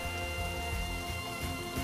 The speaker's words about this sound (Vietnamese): trời mưa sài gòn mưa mưa tầm tã mưa từ sáng sớm mưa trắng trời trắng đất